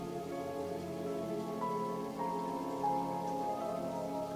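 Water runs steadily in a natural landscape with plants, trees and flowers, a continuous rushing hiss that barely changes in level, layered over a soft, sustained tonal hum. No one speaks.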